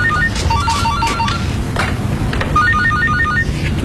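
A phone ringtone plays a short bright melodic phrase of stepped high notes, pauses briefly, then repeats, sounding loud over a steady low background hum with no talking.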